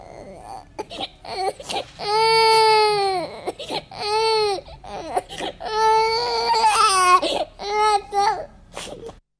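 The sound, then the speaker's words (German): Loud crying and sobbing of a princess (a king's daughter) afraid of a cold frog: a series of high, drawn-out wails broken by short gasping sobs, rising and falling over several seconds with no talking. “Die Königstochter fing an zu weinen.”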